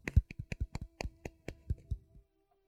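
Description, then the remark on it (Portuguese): A quick run of about a dozen hand claps, sharp and fairly loud, in a slightly uneven rhythm that stops after about two seconds. No voices are heard. “Eu não sei porque é que eu bati palmas a isto”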